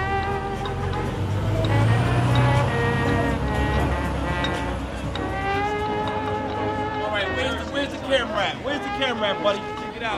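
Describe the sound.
Steady city street traffic on 125th Street in Harlem: a continuous rumble of buses and cars with a hissing air brake, while voices talk throughout over the engine noise.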